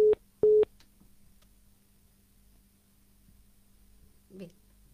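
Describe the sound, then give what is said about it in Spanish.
Two short, fairly loud telephone line beeps sound in quick succession as a call connects to one of the mothers from Madres que se plantan Rosario, then give way to a low, steady line hum with a faint, brief murmur near the end. “Ahí está conectando entonces la comunicación con una de las madres, de Madres que se plantan Rosario, para conversar entonces sobre este nuevo acuerdo que no incluye el autocultivo.”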